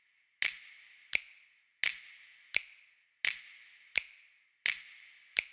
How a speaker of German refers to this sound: gibt es ein interaktives Spiel zwischen dem trockenen, aber sehr breiten Snap, der auf der Seite ist, und dem nassen einzelnen Snap, der jede halbe Note vor sich hinspielt. Und so interagieren die beiden und fügen sich jetzt schön in den Mix zusammen